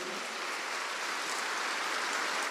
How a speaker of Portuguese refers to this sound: E aí, isso aí, palmas para a galera lá do, da recepção.